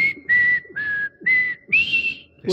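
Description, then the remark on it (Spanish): A clear whistled melody from the music of the film Close Encounters of the Third Kind glides between a few sustained notes, carried over a steady pulsing accompaniment that swells in regular beats about twice per second, with no voices. “Eso te iba a decir, que en la música hay un momento en que se escuchan las notas de, de la canción de Pinocho”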